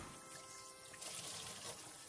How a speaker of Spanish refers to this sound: Tu mamá está lavando la losa en este preciso instante. Lava la losa, se escucha correr el agua constantemente.